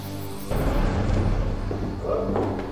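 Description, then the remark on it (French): Doors being opened and closed, with rattling and knocking, as someone checks all the doors and windows of the family's house, over a dense, noisy background that starts abruptly after a brief low hum. “Croyant que quelqu'un peut être entré par effraction, Steven vérifie toutes les portes et les fenêtres.”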